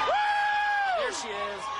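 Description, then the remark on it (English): A crowd of onlookers cheers outdoors in Davenport, Iowa, as a missing woman appears at a fourth-floor window of a partially collapsed apartment building, led by one loud, sustained whoop that holds steady then slides downward, with a dense wash of voices and shouts continuing beneath it. “Cheers echoed through the crowd of onlookers after a missing woman poked her head out of a fourth floor window about 24 hours after her building partially collapsed.”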